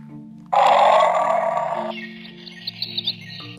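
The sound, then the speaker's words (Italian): A tiger roars suddenly in the jungle: a loud, rumbling roar bursts in and holds for over a second before fading, followed by a few faint, high bird chirps. “La tigre nella vita giungla di improvviso rimbomba un ruggito.”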